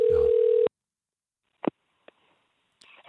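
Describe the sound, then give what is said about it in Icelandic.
A steady, buzzy telephone dial tone sounds for about half a second and cuts off abruptly as a dropped call is hung up to be redialled. Silence follows, broken by a couple of sharp clicks, then a rush of line noise. “Ég er bara, bara skella á og ringi hann aftur.”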